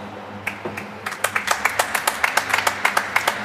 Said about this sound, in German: also dann fragen wir mal die Zuschauer hier bei uns. Äh, jetzt Beifall klatschen, wenn es Freischuss hätte geben sollen.